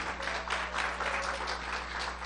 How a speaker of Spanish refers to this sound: Gloria al Señor. Denle un aplauso fuerte al Señor Jesús. Amén